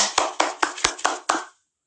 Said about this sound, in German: Wir sind bei Top 3 angekommen und ich möchte lauter klatschen als beim letzten Mal.